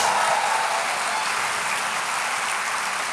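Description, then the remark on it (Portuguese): An audience applauds Jesus in a dense, steady wash of clapping that holds at an even, fairly loud level for the whole stretch, with no distinct voices standing out. “Verdade, aplauda Jesus.”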